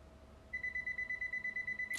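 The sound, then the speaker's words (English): A landline telephone rings in a house with a fast, steady electronic trill of rapid beeping pulses, starting after a short quiet moment and continuing clearly, with no one talking. “I have moved from my car to in the house, and the phone is ringing.”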